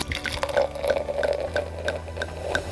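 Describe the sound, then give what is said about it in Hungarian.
Sparkling wine from a crown-capped bottle fizzing as it is poured into a glass, a steady liquid rush sprinkled with quick, crisp bubbly pops and ticks at an irregular rhythm, moderately loud, with no voices. “Ez a finom kis pesgés valahogy mindenkinek olyan kedves, szerintem a fülének.”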